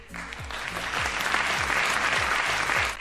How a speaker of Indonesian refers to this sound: Yeay, tepuk tangan dulu kali ya.